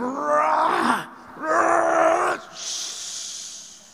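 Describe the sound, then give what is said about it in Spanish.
A man's voice imitates a sea wave: two rising, groaning vocal swells, each about a second long, followed by a long breathy hiss that fades out, like water washing up the shore. “Porque la ola viene así.”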